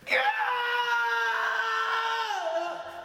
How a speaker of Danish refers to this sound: Hun når lige at se, at klokken nærmer sig midnat, og i det hun lukker lågen til opvaskemaskinen, hører hun et hjerteskærende højt skrig.